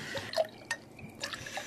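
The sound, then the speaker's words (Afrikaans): Whisky is poured from a bottle into glasses: a few short, splashy gurgles and drips of liquid, fairly quiet, with no voices over them. “ek kon nog nie my ketel opspoor nie, maar ek het wel op die bottel whisky afgekom.”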